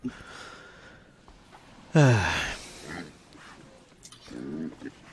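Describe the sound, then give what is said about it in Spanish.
Pigs grunting: one loud, drawn-out grunt with a falling pitch midway, then a softer, shorter grunt near the end, over a low, steady background murmur. “Se escuchan algunos chanchos”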